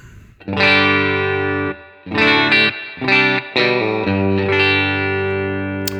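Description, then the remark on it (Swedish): Distorted electric guitar played alone through an amp-in-a-box pedal emulating a deluxe amplifier: a long ringing chord, a quick run of shorter chords and notes, then another chord left to sustain. “Utan vi testar den här in i en deluxe eh, emulerad förstärkare”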